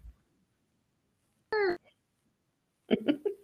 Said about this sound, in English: My son just got out of the bathtub him and my husband are both yelling, screaming down the hall,